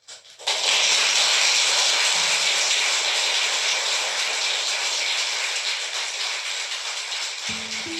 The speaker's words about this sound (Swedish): Ja, det är alltså jubel vi hör i rättssalen.